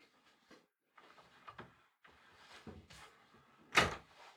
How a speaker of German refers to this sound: Timo schließt die Tür.